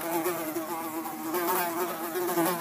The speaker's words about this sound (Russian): Потом они стали замечать в комнатах даже посреди зимы полчища мух